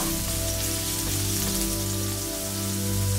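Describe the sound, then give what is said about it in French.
A steady, dense crackle of half the minced garlic sizzling in two tablespoons of hot sunflower oil in a pan preheated on high heat, stirred briefly. It is continuous for the whole stretch, with a low hum of a kitchen appliance underneath and no voices. “Dans une poêle préchauffée à feu fort, je mets deux cuillères à soupe d'une de tournesol quand l'huile est chaude, je mets la moitié de l'ail haché. Je remue brièvement”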